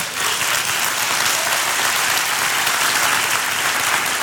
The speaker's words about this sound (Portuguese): Nas palavras de Jesus, de Marcos capítulo 9, verso 23, que merecia uma salva de palmas.